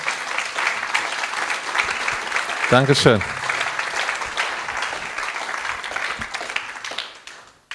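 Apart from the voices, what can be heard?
audience applause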